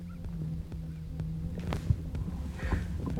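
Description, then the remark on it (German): A steady, low mechanical hum drones continuously from a heart pump implanted at the apex of a person's heart, like a small motor running, with no heartbeat heard, occasional soft thumps and rustling over it and no voices. “Wie als ob man so einen, so einen Rasierapparat in der Brust hat.”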